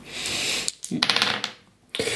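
Dice rattle and clatter onto a hard surface, a burst of sharp clicks, a short pause, then another clattering roll.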